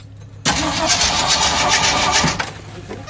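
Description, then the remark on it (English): A very cold engine with a Motorcraft 2100 carburetor cranks hard and steadily, churning loud for a few seconds before easing off, as if struggling to catch. “It's got a Motorcraft 2100 carburetor on it, and it usually fires right up, but not when it's cold.”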